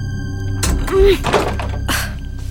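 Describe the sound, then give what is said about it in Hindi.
The jammed door of a very old, carved wooden wardrobe is wrenched open: a few dull knocks and scraping bursts, with a short low creak partway through, over a steady low hum. “और जब वो खुली तो पर अंदर तो कोई नहीं था”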